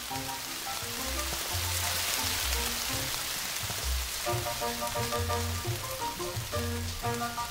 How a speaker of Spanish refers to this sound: ¿Acaso está lloviendo también en tu ventana? ¿Acaso esté lloviendo calladamente así?